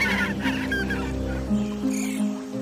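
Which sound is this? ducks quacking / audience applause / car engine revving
ducks quacking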